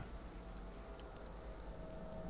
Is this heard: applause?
no